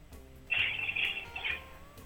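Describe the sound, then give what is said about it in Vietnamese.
A video call cutting out: a single high, warbling electronic tone lasts about a second, fairly loud against a quiet background hum, then stops abruptly. “Dạ các bạn thân mến, có lẽ là cuộc video chúng ta sẽ à, gián đoạn ở đây”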